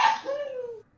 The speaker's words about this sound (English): Bless you.